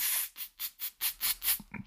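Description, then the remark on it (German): A voice imitates a snake's hiss: six sharp, airy hissing bursts in a steady rhythm, each rising and falling, ending with a short ragged breathy sound. Fairly quiet, with no talking. “Die Schlange. Ja. Die hat immer so.”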